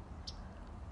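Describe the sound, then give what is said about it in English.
A couple of short, high bird chirps, one early and one at the very end, sound faintly over a low, steady background hum. No one speaks. “As I sit here listening to the birds chirp in the background,”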